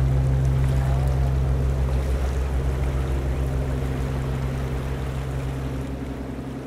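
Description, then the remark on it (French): A boat motors along on a four-day river journey on the Amazon, Trombetas and Nyamunda rivers, its engine a steady, loud low drone beneath a continuous wash of splashing water, fading slightly toward the end. No one speaks. “Pour me rendre sur les terres ancestrales des Ikamiabas, je dois voyager quatre jours en bateau sur les fleuves Amazon, Trombetas, puis Nyamunda.”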